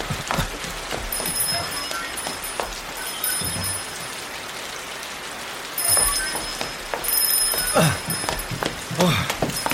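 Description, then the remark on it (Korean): A dense, continuous hiss of steady rain at night, not a passing shower, falls without letup, with scattered sharper taps and knocks of drops or footsteps cutting through, moderately loud. “근데 소나기가 아닌가 봐요. 멈출 기미가 안 보이네.”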